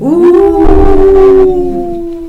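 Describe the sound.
A person imitates a wolf howl with one long, steady 'ooh' held for about two seconds, loud, with a brief rush of background noise in the middle.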